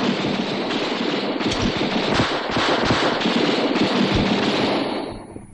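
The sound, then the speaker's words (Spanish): A loud, dense barrage of gunshots fired through a hole in the door of an abandoned house, with rapid cracks overlapping into a continuous crackling roar for several seconds before trailing off at the end. No voices are heard. “Luego, Valdés dispara por un agujero de la puerta de la casa abandonada.”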